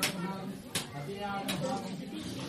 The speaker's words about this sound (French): Leur litanie est rythmée par les coups de machette qui ouvrent les noix de coco et offrent ainsi au dieu à la trompe d'éléphant le cœur même de ses fidèles.